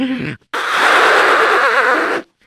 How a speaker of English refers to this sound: Let me blow my nose first. I got a runny nose.